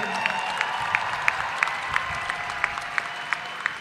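Audience applause cheering the elders, with a steady, rhythmic clap roughly three times a second, sharp and even, over a low continuous crowd hum; no distinct cheering stands out.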